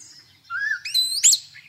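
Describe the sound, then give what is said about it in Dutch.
A common starling gives a whistling call: a rising whistle followed by two sharp, shrill whistled notes with bright harmonics, clear, with no voices. “Want je leest hier en daar ook dat ze een fluittoon maken.”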